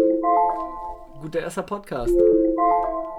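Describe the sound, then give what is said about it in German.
An alarm clock rings with steady electronic tones that hold for about a second, pause while someone speaks briefly over the gap, then sound again through to the end. “Das ist unser Wecker, der uns sagt, dass wir jetzt die Fresse halten müssen.”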